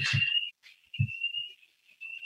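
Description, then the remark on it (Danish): An alarm in an office building sounds as a steady, high-pitched electronic tone, holding on with brief dips. A few low thumps land near the start and middle. “Der starter en alarm et sted i min øh, kontorhus her.”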